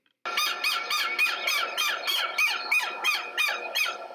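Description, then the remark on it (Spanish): A southern lapwing (tero) calls loudly and insistently, a rapid run of about a dozen harsh, strident notes repeated in a steady rhythm, with no talking. “Su sonido es el siguiente.”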